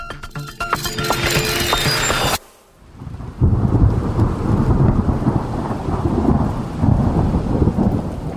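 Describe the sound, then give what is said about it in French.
Deep, rolling thunder rumbles loudly over steady rain, continuing for several seconds after a brief burst of bright, busy sound and a short near-silent pause. “Et est-ce que ça a un rapport avec le bruit du tonnerre?”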